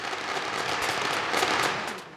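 Dense fireworks crackle steadily, with sharp bursts and snapping pops spread through a busy, continuous barrage, with no voices.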